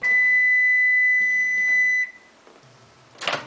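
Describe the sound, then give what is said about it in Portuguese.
A single long electronic beep from a microwave oven heating a frozen lasagna, steady and fairly loud for about two seconds, then quiet, followed by a short soft burst of noise. “Ele vai até a geladeira, pega uma lasanha congelada, coloca no micro-ondas”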